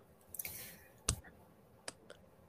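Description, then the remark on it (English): A person face palms twice, a hand slapping against a face in one sharp smack followed later by another lighter one, with a few faint taps around them and no talking. “If you heard that, that was me face palming twice.”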